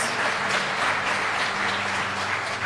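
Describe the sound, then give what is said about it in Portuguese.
A church audience applauds for the Lord Jesus, a dense wash of many hands clapping at once, sustained and fairly loud throughout with a faint low hum beneath. “Aplauda mais uma vez, Senhor Jesus.”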